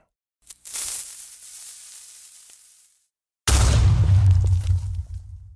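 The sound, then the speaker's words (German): A creeper from the video game Minecraft gives a steady fizzing hiss for a few seconds, then after a brief silence a loud explosion bursts out with a deep rumbling boom that slowly trails off. “Creeper war das. Ein Grusler? Aus dem Spiel Minecraft.”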